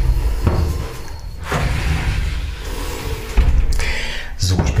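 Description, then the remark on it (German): The two doors of a shower cabin slide and bump shut in a few quick knocks and scrapes as someone closes them from inside the cabin, in an echoey space, with a voice briefly audible in the background. “Und dann werde ich sie mal schließen.”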